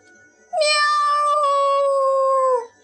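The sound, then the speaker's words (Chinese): Wilbur the cat, splashed by sea water on a beach, lets out one long, loud, frightened meow, a sustained wailing cry with a bright, slightly wavering pitch that holds steady for about two seconds before cutting off. “喵！威尔伯吓得大哭，他最怕被弄湿了。”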